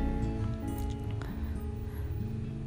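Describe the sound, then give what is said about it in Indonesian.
Motorcycle engines rumble steadily as many motorcycles pass by in the late afternoon of a Saturday while the gate is still open, a low droning hum holding at a fairly even loudness for the whole stretch, with no one talking over it. “dan satu lagi ini maaf juga untuk banyak lalu lalang motor karena ini masih sore dan portal masih terbuka belum ditutup masih banyak motor malam minggu pula jadi maaf kalau banyak lalu lalang motor”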